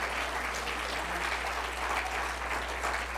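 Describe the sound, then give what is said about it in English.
An audience applauds steadily, a dense, even patter of many hands clapping at once, sustained without pause for a few seconds at a moderate level. “Well, you ought to clap your hands on that one.”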